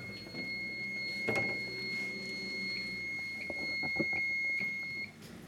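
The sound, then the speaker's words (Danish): A security alarm beeps while being switched off: a steady high-pitched tone sounds throughout, punctuated by short keypad bleeps near the end and a few clunks of handling, before the tone cuts off. “Skal lige have alarmen fra her?”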